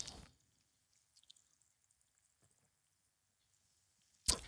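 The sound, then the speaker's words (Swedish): Quiet sipping of Pellegrino sparkling mineral water, with faint wet clicks and tiny fizzy ticks, bracketed by short louder rustling bursts at the start and end. No one speaks. “Åh, oh, mycket bubblor i.”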